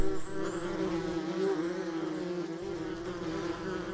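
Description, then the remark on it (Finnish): A wasp buzzes steadily in flight, a continuous droning hum that wavers slightly in pitch as it moves, with no voices present. “Onneksi osa pihapöydän ympärille lentävistä ampiaisista on täysin harmittomia.”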